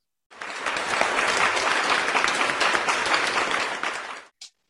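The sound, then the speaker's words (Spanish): A crowd at an awards ceremony bursts into applause for visual effects workers, a dense, steady wash of many hands clapping for about four seconds before stopping abruptly, followed by a brief faint burst. “Un aplauso para estos estos trabajadores de efectos visuales.”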